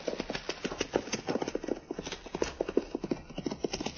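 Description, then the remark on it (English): Horse hooves clip-clop in a quick, steady gallop rhythm along a trail as a rider comes back this way, the beats growing slightly louder as the horse approaches. No voices are heard. “A rider coming back this way.”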